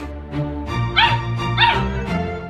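A small dog lets out a quick run of high yips and whiny barks, with a couple of drawn-out whimpering cries in the middle, fairly loud, with no talking.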